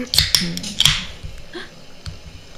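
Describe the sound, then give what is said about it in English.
A few sharp, dry cracks of twigs snapping, two quick ones followed by a third, then quieter rustling fading into the background. “Twig snaps.”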